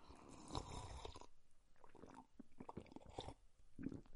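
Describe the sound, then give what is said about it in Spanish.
Quiet mouth sounds of someone sipping water: a few wet slurps and gulping swallows in irregular bursts, with no talking. “Voy a hacer un sorbito de agua porque me lo merezco.”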